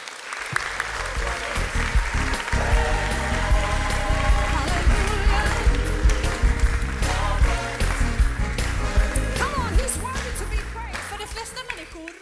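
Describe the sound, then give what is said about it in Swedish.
A crowd breaks into loud, sustained applause for the guests at the end of an evening talk show, dense clapping holding a steady level for about twelve seconds before tapering slightly near the end. “Ge dem en varm applåd.”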